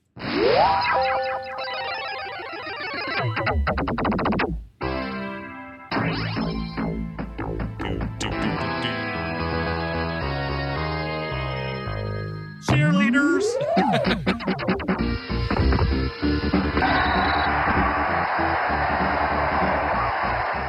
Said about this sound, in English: Let's play some uh, sound from this game. This is uh, a piece, just a piece of Tecmo Bowl. Because it's long. Arcade.